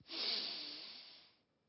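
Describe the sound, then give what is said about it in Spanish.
A single slow, deliberate calming breath, a soft airy rush that swells quickly and then fades away after about a second, with no talking. “Esta es una forma de aquietarse con la respiración.”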